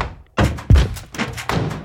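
A house door swings shut with a solid thud behind two people who have climbed stairs and entered, surrounded by a few other dull knocks and bumps, like footsteps or handling noises, with no voices.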